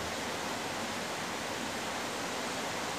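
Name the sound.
flowing river water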